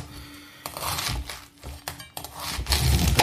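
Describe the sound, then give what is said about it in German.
A knife crunches and scrapes through the hard core at the bottom of a halved white cabbage, cutting it out in a few rough, uneven strokes with brief pauses, the crisp crackling swelling louder toward the end. “Ich halbiere mir den immer so schön und schneide dann, wenn er halbiert ist, schneide ich mir unten das Herz raus.”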